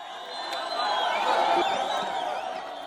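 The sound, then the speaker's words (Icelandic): A large street crowd in the morning in Omdurman, Sudan, on the west bank of the Nile opposite Khartoum, shouting and cheering together, a dense, continuous roar of many voices that swells slightly in the middle, with whoops and ululating calls rising above the mass. “Það sem þú heyrir hér hlustandi góður hljómar eins og fagnaðróp en ekki mótmæli í borginni Omdurman, fjölmennustu borgar Sútan en borgin liggur við Vesturbakka Nílar gengt höfuborginni Kartúm.”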